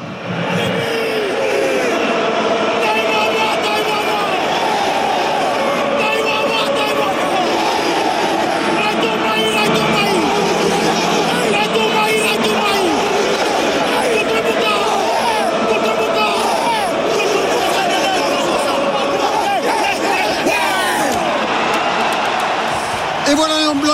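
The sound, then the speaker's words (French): A huge crowd of English supporters at the Vélodrome stadium sings 'Swing Low, Sweet Chariot' loudly and continuously during the Fijian war dance before the England–Fiji Rugby World Cup France 2023 match, thousands of voices blending into a dense, roaring chant that fills the whole stretch without pause. “les supporters anglais ont décidé de donner de la voix. Le premier swing low, swing chariot et c'est parti pour le Simbi.”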